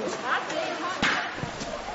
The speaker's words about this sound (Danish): Og så skal vi gribe bolden og klappe.